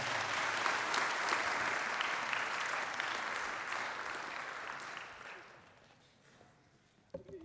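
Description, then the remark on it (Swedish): A crowd gives a warm applause for people who have just shared their experiences, with dense, steady clapping for several seconds that then gradually fades out, followed by a brief sharp sound near the end. “Ska vi ge dem en varm applåd?”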